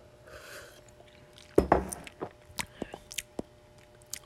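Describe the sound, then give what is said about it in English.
A loud slurping sip of a dairy-free, soy-free, gluten-free milk drink from a cup bursts out, followed by a string of small wet mouth clicks and a swallow as the drink is tasted, with no talking. “I'm gonna give it another sip.”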